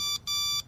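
A small Tamagotchi electronic toy, cheap electronics in a colourful plastic egg shell, beeps twice in a bright, buzzy tone, a short beep followed by a longer one after a brief gap, clear with no talking.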